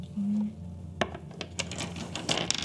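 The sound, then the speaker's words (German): Dice clatter across a hard tabletop during a tabletop role-playing game, in a quick burst of sharp, uneven clicks and rattles, fairly loud, after a brief low hum at the start. “Ähm, Würfel okay.”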